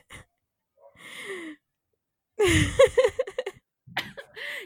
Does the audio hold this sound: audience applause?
no